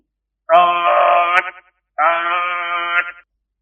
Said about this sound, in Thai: ทันใดนั้นเองเสียงกลิ่งสัญญาณประจำเครื่องเรดาร์ก็ดังขึ้น